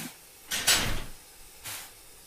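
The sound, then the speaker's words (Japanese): The door of a vehicle being boarded for the town slams shut with a loud, noisy burst, and a shorter, softer knock follows about a second later. Nobody speaks. “どうが閉まりますバタン”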